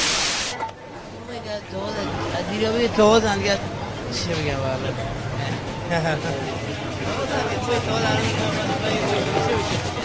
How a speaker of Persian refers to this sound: البته فکر نمی کردم هنوز تو این وایسر صدایی باشه اما اتفاقی پلیش کردم و منو برد به سال 89 سفر بندر عباس گوش کنید اینم یه صدای مستند از بازار ماهی فروش هست